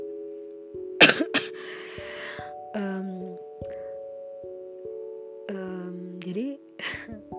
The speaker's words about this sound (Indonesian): maaf ya aku pengen batuk